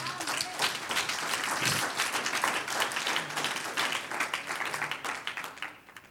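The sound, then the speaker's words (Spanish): A crowd breaks into sustained applause offered to God, dense overlapping claps holding steady for several seconds before thinning out and fading at the end. “Un aplauso al que vive.”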